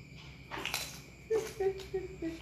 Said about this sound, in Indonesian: Yo ya krungu kabeh. Kodok, kodok.